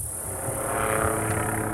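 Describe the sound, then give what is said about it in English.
A small helicopter, of the kind the Federal Bureau of Land Management uses to locate and round up wild horses, drones steadily overhead, its engine and rotor hum forming a continuous, moderately loud rumble with a faint high whine, no voices present. “So, the Federal Bureau of Land Management regularly rounds up wild horses mainly by using small helicopters to locate, capture, and truck them off to corrals or enclosed pastures like this one.”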